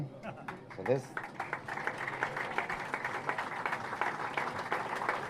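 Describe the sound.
An audience applauds steadily, many hands clapping in a dense, sustained patter. A voice briefly speaks over the start before the applause takes over and continues at an even level.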